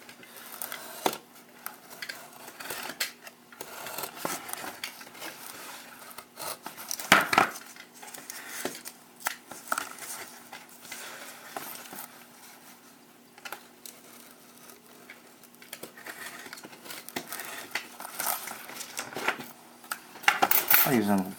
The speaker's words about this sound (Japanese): 紙を切る感覚とはまた違いますよね段ボール切るのって、上面と下面にの紙側があるから、